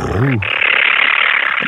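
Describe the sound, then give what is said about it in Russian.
A brief voiced hum slides up and down, then a person makes a steady, breathy, rumbling noise, imitating a cat's purr for about a second and a half. “Ну, хотя бы урчание кота ты можешь повторить,”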